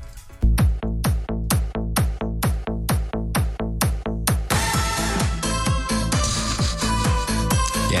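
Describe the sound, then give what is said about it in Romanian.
A house-style music track opens with a bright plucked string chord repeated in a steady, driving pulse, then fuller layers and percussion join halfway through. Loud, with no voices. “Am auzit acest acord de, nu știu ce, mandolină sau chitară piciuită, sublumată, nu știu.”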